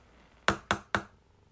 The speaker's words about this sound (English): and you hear Mengelberg tap the stand at the orchestra.